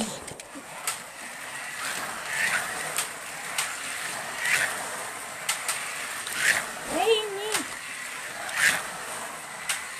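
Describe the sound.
Carrera Go toy slot cars whir steadily around a track, with a louder swoosh every couple of seconds as they pass, while people talk and react in German over the racing.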